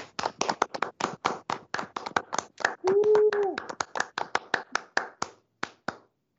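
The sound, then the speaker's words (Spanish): Loose, uneven clapping from a small group over their microphones, applauding gerontologists and students on Gerontologist's Day, crisp sharp claps for about six seconds, with a brief raised voice calling out partway through before the clapping thins and stops. “Bueno, mire, prendan todos sus, todas todos y todas sus, sus, este, sus micrófonos para darnos una, para darles un aplauso y que se escuche también para los gerontólogos, los estudiantes.”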